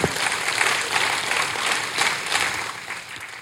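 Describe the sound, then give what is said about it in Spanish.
An audience applauds for the Lord with steady, dense clapping that holds at an even level for a few seconds, with no voices rising above it. “Un aplauso para el, Señor.”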